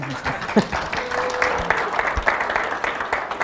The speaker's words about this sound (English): Let's clap for them.